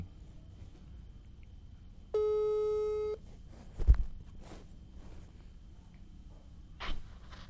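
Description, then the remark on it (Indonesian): A single steady telephone ringback tone sounds for about a second as a call is being placed, fairly loud and clear, followed by a soft thump and faint rustling. “ini gue telepon”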